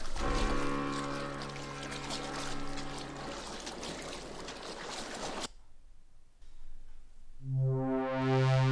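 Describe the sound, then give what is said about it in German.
A boat moves through the water of the Mediterranean Sea near an island with steady splashing and rushing, fairly loud. It drops off sharply partway through, then a loud sustained tonal sound rises near the end. “Moment. Ist das ein Boot?”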